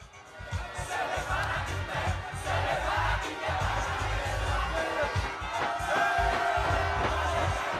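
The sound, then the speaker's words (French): Several hundred football fans, men, women and children, gathered before a giant screen at a small stadium in Korhogo during the Africa Cup of Nations, murmur and call out continuously, a dense wash of many voices with occasional cheers rising above the steady hubbub. “Ils sont plusieurs centaines, hommes, femmes, enfants, à se retrouver devant un écran géant, un petit stade dans la ville,”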